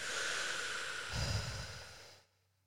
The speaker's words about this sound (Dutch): Even een ademhaling.